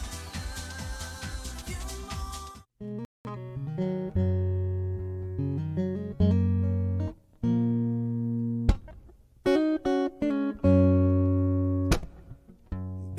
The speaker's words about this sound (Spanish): Vamos, vamos a escuchar un, un, temita. Muy buen tema por acá. Esta maravillosa voz. Vamos.